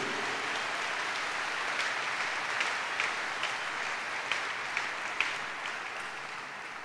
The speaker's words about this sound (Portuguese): Dá uma aplauso ao Cordeiro que venceu.